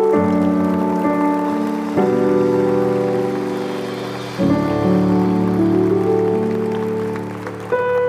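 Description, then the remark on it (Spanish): A large crowd at a Christian sermon applauds the Lord loudly and steadily, a dense wash of clapping that carries on over sustained keyboard chords for the whole stretch, with no voices. “Dale un fuerte aplauso al Señor.”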